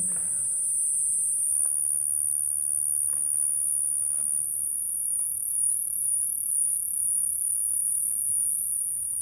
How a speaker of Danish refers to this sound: Men ved at øge modulationen, så kan vi komme et sted hen, hvor det begynder at lyde af cikader. Og det synes jeg var dybt fascinerende.